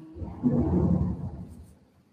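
A deep, low rumble of thunder swells quickly, holds for about a second, then rolls off and fades. It's loud and fairly close, with no voices over it.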